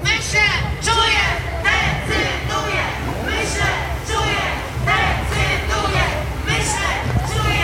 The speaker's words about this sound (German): Was schreien diese Frauen da? Ich denke, ich fühle, ich entscheide. Das ist eigentlich eine ganz gute Zusammenfassung der Haltung einer Mehrheit der jungen Frauen hier in Polen, wenn es um Abtreibung geht.